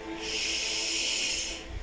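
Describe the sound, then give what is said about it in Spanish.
A single deep breath drawn in, a steady airy hiss that swells and holds for about a second and a half before tapering off, with no talking. “Toma una respiración profunda.”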